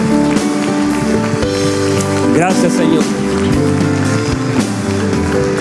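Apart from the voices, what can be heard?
audience applause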